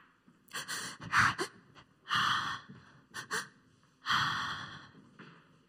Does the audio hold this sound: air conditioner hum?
no